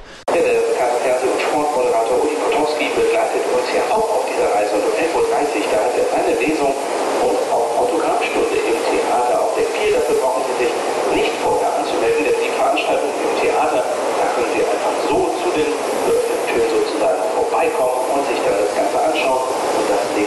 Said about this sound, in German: Ist vielleicht ein bisschen schwer zu verstehen, aber die, die es sehen, sehen zumindest das Meer. Und wenn man genau hinhört, dann hört man eine Lautsprecherdurchsage und dann weiß man auch, was ich hier veranstaltet habe.